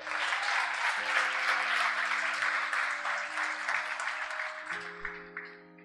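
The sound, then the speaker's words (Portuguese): An audience applauds the Lord steadily for several seconds, the dense clapping fading toward the end while sustained organ or keyboard chords play underneath. “É, pode aplaudir o Senhor.”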